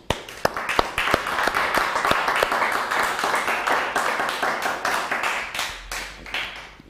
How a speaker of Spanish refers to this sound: Un fuerte aplauso.